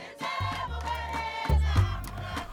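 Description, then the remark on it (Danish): A person imitates the peaceful contentment vocalization of wild mountain gorillas in Rwanda with deep, rumbling hums and grunts in two long, sustained stretches, fairly loud over a busy background. “Now, I had the crawl around for two years, came to imitate their peaceful vocalization, their contentment vocalizations, mom, like this.”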